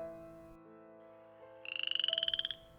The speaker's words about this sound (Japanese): あれ今カエルさんの声が聞こえなかった